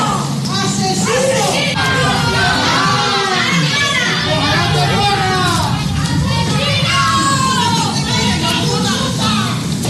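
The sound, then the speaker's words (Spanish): A large crowd of onlookers and neighbours behind a police cordon shouts and jeers angrily, yelling "Asesino!" at a young man escorted by the Guardia Civil from a police vehicle to his home; many voices yell over one another in a loud, continuous, unbroken roar. “Al salir del vehículo policial, camino de la vivienda, los curiosos y vecinos que se han congregado tras el cordón policial le han recibido con estos gritos.”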